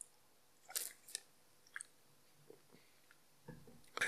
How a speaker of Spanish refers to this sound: perdón, estaba tomando agua